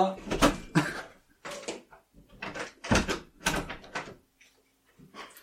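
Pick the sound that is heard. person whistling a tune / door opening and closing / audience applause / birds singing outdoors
door opening and closing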